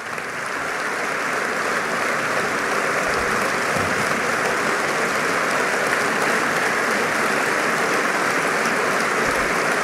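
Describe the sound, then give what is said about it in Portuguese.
Loud, sustained applause from a large audience in a pavilion at the end of a closing speech, a dense, steady roar of clapping hands that continues evenly throughout without pauses or voices rising above it. “Não há dúvida que as mulheres merecem e este aplauso forte e sentido eu proponho que tenha para nós também o significado de evocar as 25 mulheres que pereceram este ano às mãos de ataques de violência doméstica.”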